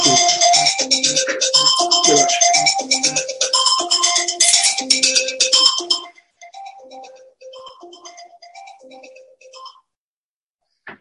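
A phone rings with a loud melodic ringtone for several seconds, then a softer, repeating pattern of short electronic tones follows before it cuts off into silence.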